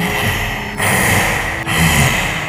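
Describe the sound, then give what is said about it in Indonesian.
A voice imitates a deep, eerie female laugh as a loud, raspy, breathy rasp, drawn out in three long pulses with brief breaks between them. “Nah, ada suara ketawa cewek tapi berat gitu kayak”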